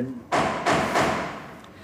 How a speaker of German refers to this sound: Vielleicht kannst du mal fragen, ob sie unbedingt jetzt hämmern müssen.